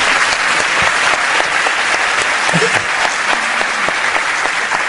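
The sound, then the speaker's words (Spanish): Steady, dense applause from an audience fills the whole stretch, a loud continuous wash of many hands clapping without any speech over it. “¿A le dan ustedes ese, aplauso?”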